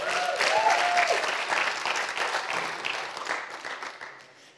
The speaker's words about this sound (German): Vielen Dank. Wollen wir mal den Mädels einen richtig dicken Applaus geben?